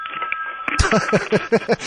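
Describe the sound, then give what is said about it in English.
A telephone, one of several phones in a studio, rings with a loud electronic trill of rapid, evenly spaced pulses that starts abruptly after a moment of near-quiet with a faint steady tone. “multiple phones in this room.”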